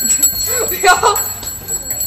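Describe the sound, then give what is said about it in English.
A small bell is rung as a signal for people to start walking, a quick couple of bright dings near the middle, over a steady background murmur with faint voices. “You're gonna walk it out, and then I'll ring the bell.”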